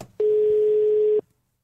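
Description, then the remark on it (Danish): A single one-second beep of a telephone ringing tone as a reporter calls one of Brian Mørk's bookers from a radio studio: a steady, mid-pitched hum that starts and stops abruptly, loud and alone with no talking. “Vores reporter Peter Marstal har forsøgt at forfølge de her to ledetråde, blandt andet ved at ringe til en af Brian Mørks bookere”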